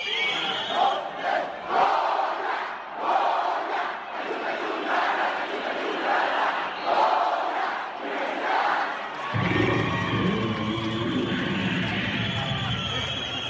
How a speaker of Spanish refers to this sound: La afición Puma, celebró, el triunfo, de su equipo. De su equipo.